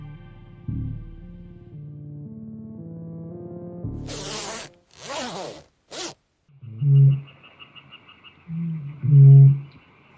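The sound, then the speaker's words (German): A grouse calls on a moor near the nature park house in Menz: a few harsh, rasping rattles followed by two deep, croaking notes with pauses between them, after a stretch of soft, steady low tones. “Boris, hast du das gehört? Das war doch ein Moorhuhn.”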